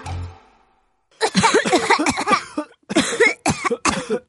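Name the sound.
people coughing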